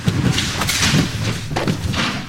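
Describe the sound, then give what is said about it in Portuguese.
A drone falling with a thud: several dull knocks and clattering bumps over a steady rushing, rustling noise, with no voices. “O que foi? Foi o drone.”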